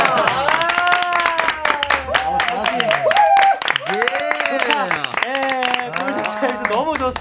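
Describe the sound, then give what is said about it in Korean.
An audience claps steadily along during a dance lesson, a dense run of sharp, rhythmic claps. A loud melodic voice sings and vocalizes over the clapping. “이렇게 제가 그냥 아무렇게나 쳐도 아~ 이렇게 박수 쳐주시는 아, 예.”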